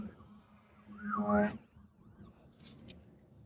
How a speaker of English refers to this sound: Um, sorry, it's an ambulance coming.